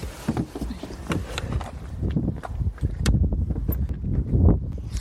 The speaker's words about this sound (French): Ah, il y a beaucoup de vent quand même. Euh, bienvenue à la ferme du Pas de Côté. Donc euh, on est euh, ici à Solé-Chartreux en Essonne sur une ferme collective.